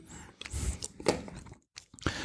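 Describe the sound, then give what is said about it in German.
Moist chewing and biting of an alcohol-tasting gummy candy, with a few soft bites and squishy mouth sounds, irregular and fairly quiet, with a brief pause before the chewing resumes. “Interessant ist, wenn du auch drin abbeißt, bei allen anderen, was wir gerade gesehen haben, ist das Innere wirklich sehr, sehr plain, also sehr mhm.”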